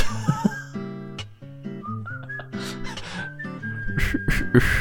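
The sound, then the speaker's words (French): Two people who can't whistle attempt a wobbly, breathy whistled tune, the pitch wavering and cutting out between notes, while low sustained tones hold underneath. The whistling is moderately loud, with airy bursts near the end. “On les deux gars qui savent pas siffler, qui du coup fait donc tut”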